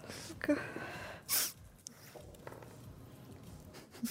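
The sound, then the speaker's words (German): A single sharp sneeze bursts out loudly about a third of the way in, surrounded by quiet background noise and a few faint soft bumps. “Gesundheit. Gesundheit.”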